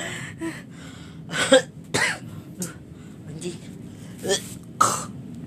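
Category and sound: human body sound, cough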